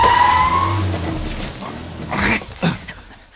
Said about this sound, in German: Doch mitten auf der Strecke machte das Fahrzeug plötzlich ein hässliches Geräusch und unter der Motorhaube quoll Rauch hervor. Der erste Detektiv trat auf die Bremse.